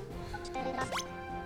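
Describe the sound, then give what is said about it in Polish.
A short video game effect of coins dropping from an object: a quick flurry of bright, high chiming tones with a fast upward sweep, lasting under a second over a steady low background hum. “Znaczy nie, tutaj to jest dźwięk, który oznacza, że wypadły, wypadły serca z danej rzeczy, a tutaj wypadły monety.”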